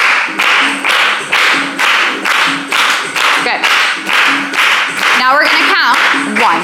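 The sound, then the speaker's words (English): A group claps together to a basic four-four beat in a steady, even rhythm, roughly two claps per second, loud and sharp, while voices count out loud and rise in pitch underneath the rhythm. “So we're gonna start and we're gonna clap to the beat.”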